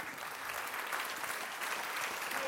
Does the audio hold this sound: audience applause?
yes